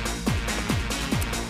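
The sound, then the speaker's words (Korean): Steady ocean surf rushes continuously, broken by four quick, repeating descending cries from circling seagulls, evenly spaced, with no one speaking. “자, 우리 파도 소리 들리시죠, 여러분들? 그렇죠. 갈매기 돌고 있네요.”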